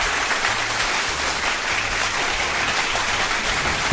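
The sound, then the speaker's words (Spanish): Steady applause sound effect of a crowd, a dense wash of overlapping hand claps that holds at an even, fairly loud level for the full four seconds with no voices over it. “Ponte unos aplausos.”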